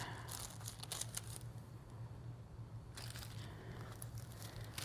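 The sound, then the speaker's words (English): Stiff, papery pages of a Bible that was water-damaged after falling into a sink of water crinkle and crackle as they are turned, in two close bursts of dry rustling separated by a brief quieter pause, with a low steady hum underneath. “oh my gosh, I just ever since my Bible fell into a sink of water, it is hard to get my pages turned.”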